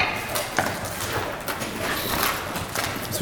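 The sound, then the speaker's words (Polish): Crunching steps over broken glass in a disused building where vats and machines once stood, several gritty crackles spaced irregularly amid a dense, hissy background, moderately loud. “te dźwięki, nie? To mhm. skrzy skrzytanie, to krupiące szkło.”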